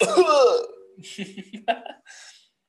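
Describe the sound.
A brief half coughing fit: a strained, throaty voiced sound followed by several short, rough bursts that trail off within a couple of seconds.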